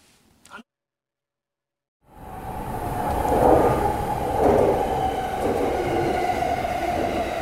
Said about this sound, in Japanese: この電車は山手線外回り品川渋谷方面行きです次は有楽町有楽町お出口は左側です地下鉄日比谷線地下鉄有楽町線はお乗り換えです The next station is 有楽町 JY30 The doors on the left side will open